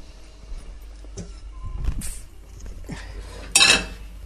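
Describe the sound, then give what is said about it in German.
Kitchen handling sounds with a few soft clunks, then a sharp metallic clank at the end as a cooking pot is set down on the stove, no voices. “So, ich setze jetzt einen Topf auf.”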